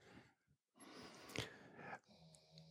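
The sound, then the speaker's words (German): A dog snores quietly: a short rasping breath, then a long, noisy, wheezing drawn breath, trailing off into softer snuffling. No one speaks. “der Hund schnarcht. Flame schnarcht.”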